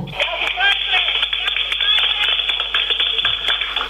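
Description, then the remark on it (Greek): Rapid, uneven slapping claps, like skin smacking skin, from women clapping outside at the president's arrival in Thessaloniki, repeating throughout over a steady background hum and a busy crowd murmur. “Εμένα μου, εμένα μου ακούγονταν σαν δέρμα που πλατσουρίζει δέρμα.”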